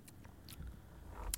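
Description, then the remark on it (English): A beer bottle, kept unopened for over a year, is cracked open: a few small scraping clicks, then a sharp, bright pop-hiss of the cap coming off at the end, with no one talking. “how could I not crack this thing and see if if Dom's beer of choice can withstand a year”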